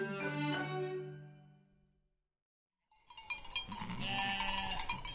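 A sheep lets out a loud, wavering bleat that fades away, followed after a short pause by a busier stretch of another bleat mixed with bright birdsong chirping, clear; heard on a new CD album of chansons.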